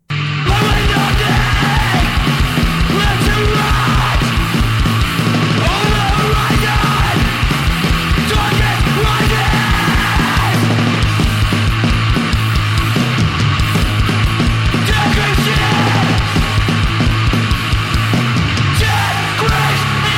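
A raw, lo-fi song blasts at full volume throughout, with rapid pounding drums, a dense wall of distorted guitar and harsh yelled vocals pushed right up front.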